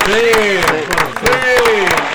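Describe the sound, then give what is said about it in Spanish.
Scattered clapping from a small group, crisp irregular claps, mixed with voices cheering or calling out over the top for a couple of seconds. “Sí, Usted se podría decir que también le vamos a agradecer y lo vamos a aplaudir”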